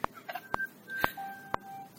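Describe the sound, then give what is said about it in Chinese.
A phone text message alert sounds on its own: four sharp, evenly spaced ticks about half a second apart, threaded with thin, steady electronic tones in a mid-high pitch, at moderate volume. “是有人加入吗？ 也不是是我的短信。”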